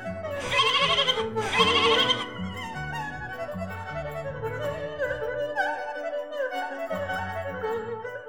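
A goat bleats, two loud, raspy cries at the start followed by wavering, higher-pitched bleats that carry on steadily, with no one talking.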